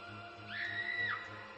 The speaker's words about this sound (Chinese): 秀琴一声尖叫，身子瘫在土炕上。